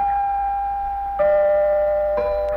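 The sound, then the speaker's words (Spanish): Three clear, sustained bell chimes of the XEW radio station identification in Mexico ring out at different pitches, each tone ringing on and overlapping the next, fairly loud with no voices. “Estas fueron las campanas más escuchadas en México a lo largo de 40 años”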